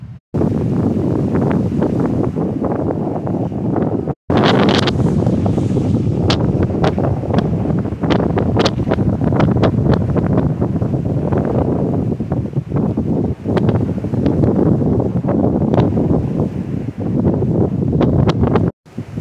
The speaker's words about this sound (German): Okay, ja, ich wollte jetzt eigentlich nur die Wellen aufnehmen, aber ja, heute ist ein sehr windiger Tag.